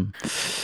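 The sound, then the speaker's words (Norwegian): A single loud snorting breath through a fully blocked, congested nose, a person's usual breathing rather than snoring: a rough, hissing rush of air that starts abruptly and carries on steadily to the end, with no talking. “Altså, ikke snorking, da, men sånn her er det vanligvis. Det er helt tett.”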